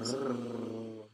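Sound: domestic cat purring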